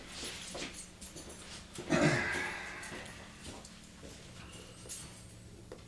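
A dog paws at a metal food bowl, making intermittent clattering taps and one louder scraping clang; someone coughs briefly.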